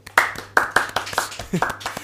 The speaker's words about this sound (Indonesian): Tepuk tangan dulu semuanya